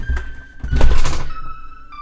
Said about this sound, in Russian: Это, это был звук, не знаю, чего, падающего чего-то. Закрывающиеся двери.